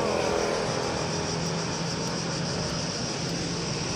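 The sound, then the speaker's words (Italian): A dense, continuous drone of cicadas chirping outdoors on a street under strong sun, steady and fairly loud throughout with a shrill high buzz and no pauses or voices. “Sentite le cicale fantastiche.”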